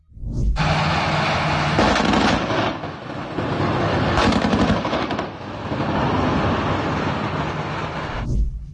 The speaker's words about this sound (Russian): То обстреливают из пулемета, то наблюдают. Можно предположить, что они сами не уверены, кто перед ними.